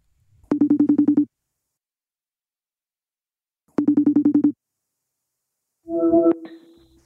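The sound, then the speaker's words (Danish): An outgoing phone call: the phone rings twice in a pulsing electronic trill, each burst about a second long with a pause between, then a short clicky pickup noise as the call connects. “nu ringer jeg op til Jakob”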